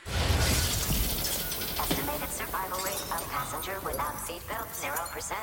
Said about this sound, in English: what they end up doing is like a tag move where they flip him into the car behind them and then run that car into the crash wall and they don't yeah. show the outcome of it but you hear the PA announcement